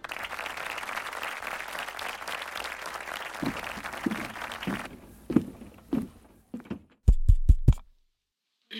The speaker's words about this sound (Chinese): 掌声欢迎他发表得奖感言。